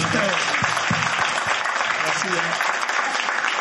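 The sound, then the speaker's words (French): Steady applause from a small group fills the whole stretch, a dense crackle of clapping hands at even loudness, with a few voices murmuring and laughing underneath. “Moi, un applaudissement pour les gars.”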